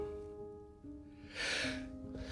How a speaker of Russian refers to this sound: Будьте здоровы,